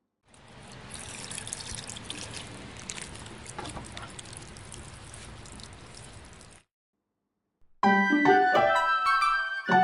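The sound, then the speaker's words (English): Water pours steadily from a watering can as a girl waters plants, for about six seconds, a continuous splashing hiss with small trickles, followed by a short silence and then a bright, tinkling musical jingle. “Example The girl with a watering can is watering the plants.”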